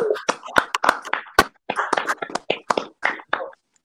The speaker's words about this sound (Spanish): y es primero darle un aplauso al gringo, por favor, que está acá con nosotros. ¡Bravo, bravo!